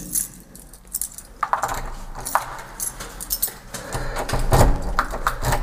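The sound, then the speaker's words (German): Metal keys jangle and clink in irregular bursts, with scraping and rattling as they are tried one by one in a door lock to find the key that fits; a louder metallic clatter comes near the end. No one speaks. “Jetzt gucken wir mal, welcher Schlüssel hier passt.”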